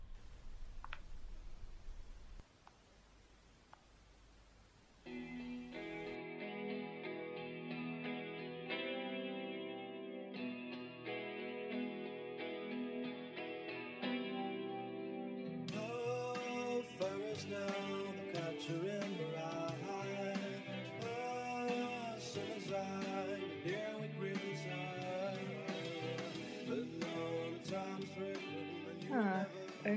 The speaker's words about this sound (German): Äh, ich mach lieber Musik an.